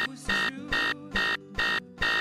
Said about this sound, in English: So now, whenever the alarm goes off in the morning, I can tell you one thing it's no problem.